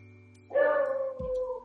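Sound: dog barking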